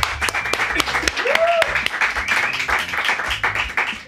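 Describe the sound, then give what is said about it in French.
An audience applauds a band after its noon live music session with dense, steady clapping for about four seconds. A short rising whoop cuts through early on, and scattered voices mingle with the clapping. “Je qu'on peut tous les applaudir.”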